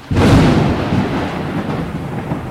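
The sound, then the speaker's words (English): A loud thunder crash sound effect introducing the Lightning Round segment on Fly on the Wall bursts in suddenly, then rolls on as a dense, rumbling roar that slowly eases without fading out. No voices are present. “but this is a new segment that we're having on Fly on the Wall. Uh, we're calling it the Lightning Round.”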